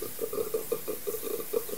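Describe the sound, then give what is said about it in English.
Water from an electric shower runs in a steady hiss, with a faint, regular pulsing beneath the spray and no voices. “A cracking groan wilted through the heavy hum of the electric shower.”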